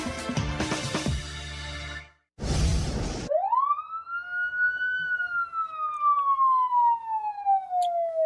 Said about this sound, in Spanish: Cuando uno escucha las sirenas, ¿no? O los, altavoces de, la policía, normalmente pues te pones alerta, ¿no? Como volteas a ver dónde está, si viene por acá, si está por tus rumbos.